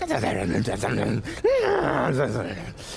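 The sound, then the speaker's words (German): A voice imitates the babbling, creaking and moaning of creatures, with drawn-out, wavering groans and a rising-falling wail near the middle, loud, with no intelligible words. “Ein, ein Kreichen, ein Stöhnen, unverständliche Laute.”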